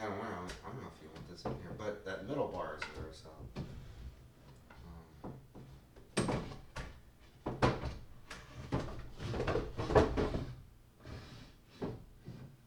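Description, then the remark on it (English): The middle drawer of a wooden desk is pulled open and pushed shut several times, with knocks and rattles. Someone is also talking at times over the noise. “oh, yes, the drawer, the middle drawer. And here it is.”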